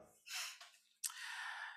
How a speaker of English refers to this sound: Sorry, I got to sneeze.